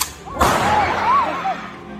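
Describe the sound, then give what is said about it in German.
A single loud, sharp warning gunshot, fired by the Belarusian side at the Polish-Belarusian border, cracks out, echoing briefly. Before and after it, faint rising and falling tones, like whistles or shouts, carry over a steady outdoor hiss. “The Polish Defense Ministry sharing this video on Twitter today, showing it says the Belarusian side firing a warning shot.”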